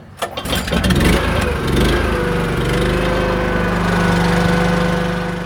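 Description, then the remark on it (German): An electric cable winch clunks into motion as it lowers a heavy special drilling tool, metal rods screwed together to drill sediment cores from the seabed; its motor settles into a steady, loud droning hum with a faint whine, running continuously with no one speaking. “Oh das schwere Spezialwerkzeug wird mit einer elektrischen Seilwinde abgelassen.”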